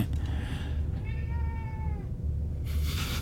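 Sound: cat meowing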